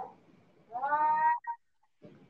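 A single drawn-out cat meow, clear, followed by a brief chirpy cut-off note, with faint low murmuring before and after.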